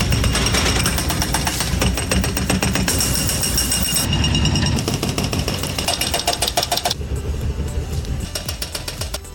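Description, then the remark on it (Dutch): Loud, continuous jackhammer pounding in rapid repetitive bursts, with heavy machinery rumbling underneath, from the demolition of the pumping station next to the Koonstamhuis on the Amstel Campus, a small building with an Anne Frank mural; no voices, the hammering easing slightly toward the end. “Ja, je hoorde de sloop van eh, het gemaal naast het Koonstamhuis.”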